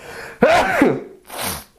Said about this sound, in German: Entschuldigung, muss niesen.